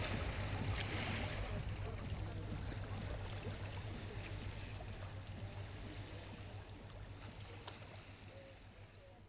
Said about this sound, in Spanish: Con los sonidos de Lisboa a la orilla del Tajo